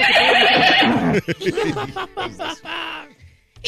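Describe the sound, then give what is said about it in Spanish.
A loud, close horse whinny fills the first second with a shrill, quavering call, then drops away as people begin talking over quieter, choppy sounds. “Yo no sabía que el caballo ya volvió a las andadas a venir a la radio todo cuachón, así como tú le dices.”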